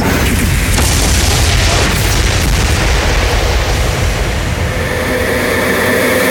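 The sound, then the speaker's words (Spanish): A loud, deep explosion rumble roars continuously for several seconds, heavy in the low end with a broad crackling wash on top, overwhelming with no voices. “Bueno, este promo debería de ser con explosiones.”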